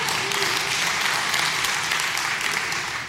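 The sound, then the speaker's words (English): A crowd applauds steadily for about three seconds, a dense, even wash of many hands clapping at once with no pauses and no voices rising above it. “So, you, you, can, you can clap.”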